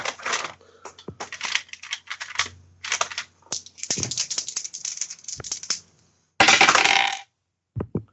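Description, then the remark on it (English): Dice clatter and rattle across a hard table in quick bursts of clicks, fairly loud, with a brief dense rattle near the end and no talking, rolled for a stealth roll in a tabletop game and landing on 22. “Dice would be helpful.”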